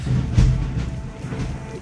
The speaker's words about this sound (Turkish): Duydunuz mu sesi bilmiyorum sevgili dinleyiciler. Size kadar geldi mi? Yani bir gök gürültüsü bizim stüdyonun içine girdi ses.